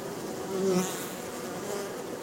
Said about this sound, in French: Fermons les yeux et écoutons les abeilles, les différentes sonorités qu'elles sont capables de produire.